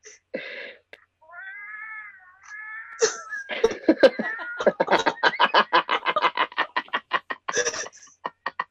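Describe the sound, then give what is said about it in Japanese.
A man imitates a cat, giving a drawn-out, wavering meow to call to a stray cat walking on a shrine roof seen from his balcony, then breaks into a long burst of rhythmic, choppy laughter that builds and carries to the end. “もう猫の声にちょい聞え俺。”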